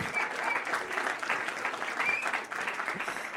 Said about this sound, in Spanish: pues se merece, vamos, mm, todos mis respetos y un aplauso bien dado.